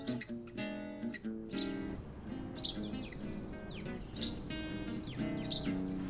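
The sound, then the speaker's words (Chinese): Two small birds chirp in short, high bursts by a tree on a mountain on a sunny day, recurring roughly every second or so over a steady, sustained tonal background, with no one speaking. “正当大家熟睡的时候，有两只小鸟在旁边徘徊着，到底是在做什么呢？”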